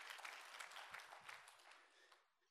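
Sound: audience applauding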